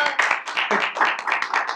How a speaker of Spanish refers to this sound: ¡Aplausos!